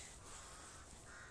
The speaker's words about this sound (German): Krä, krä. Ach, das ist ein Rabe, keiner.